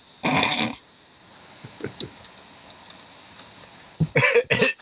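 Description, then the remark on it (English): Scattered, light keyboard typing clicks tap irregularly, framed by two louder, rough noisy bursts at the start and end. No one speaks. “is that you that I hear typing,”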